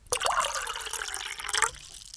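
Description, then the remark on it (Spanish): Water pours steadily into a glass for about a second and a half, a bright splashing stream that rises slightly in pitch as it fills, then stops abruptly. “te propongo tomar un poquito de agua y seguir conversando.”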